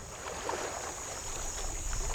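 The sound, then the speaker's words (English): A fan boat runs across water, its steady droning motor holding a constant high whine and low rumble at an even level throughout, with no voices. “I went back to where we got the fan boat. I paid the man to let me take it out.”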